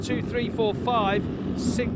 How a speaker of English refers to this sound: seven, eight sidecars all going through.